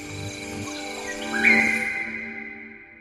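Dense rainforest ambience with a steady wash of insect-like tones and scattered bird calls, one clear chirping call rising briefly louder near the middle before the chorus fades slightly.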